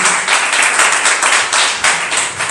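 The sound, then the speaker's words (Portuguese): A crowd applauds together for the Lord Jesus, a dense, steady wash of many hands clapping with slight surges, fairly loud, with no voices over it. “Dá outra salva de palmas para o Senhor Jesus.”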